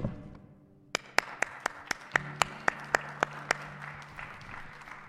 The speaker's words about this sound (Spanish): Así que nosotros de verdad aplaudimos.